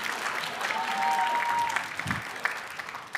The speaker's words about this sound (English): I wish you would clap or something. Just be like, wow! Act surprised. Act like it was cool.